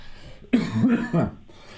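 cough

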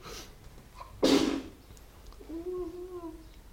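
a person sneezing

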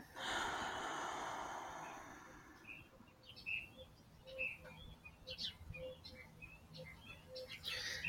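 birds chirping

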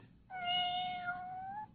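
kitten meowing

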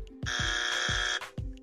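game show wrong-answer buzzer

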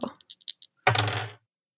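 two dice being rolled

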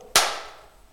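hand clap

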